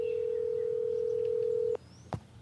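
A steady, droning telephone tone hums for almost two seconds as a phone call is placed, then cuts off with a sharp click, followed by a brief electronic blip as the call connects. No one speaks.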